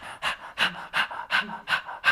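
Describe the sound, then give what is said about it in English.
A person pants rapidly like a dog as a breathing technique for laughing, about seven quick breathy bursts in a steady rhythm, moderately loud, with no talking. “because often i see uh, people just like really struggling because they don't know how to breathe you can just uh, start to pant like a dog”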